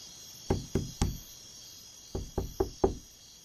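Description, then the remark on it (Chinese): Knocking on a door: three firm raps, a short pause, then four more in a quick, even rhythm. Each knock is a dull thud, heard over a faint steady hiss with no voices. “哎呀，待会儿我敲门，如果他不开门就糟糕了，那我不就进不了门了吗？”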